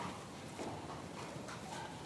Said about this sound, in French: Et c'est comme ça que je me suis retrouvée à monter à cheval, en tongue, un micro à la main, derrière une cavalière